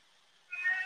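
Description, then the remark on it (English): A cat lets out a single short meow after a moment of quiet, a bright tonal cry that rises suddenly, with no talking. “Sorry about the cat.”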